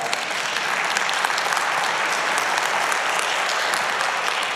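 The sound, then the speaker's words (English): An audience claps steadily throughout, a dense, even wash of many hands with no pauses or talking, holding a consistent loudness from start to finish. “Because together, yes, you can clap.”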